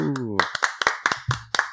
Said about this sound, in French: titulaire pour la troisième semaine consécutive, donc euh, il mérite ses petits euh, applaudissements.